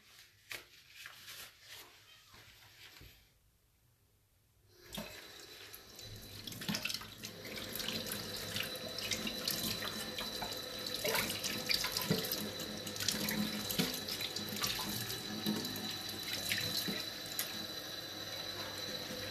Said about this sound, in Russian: Чтобы из себя весь негатив выпустить, я помою посуду.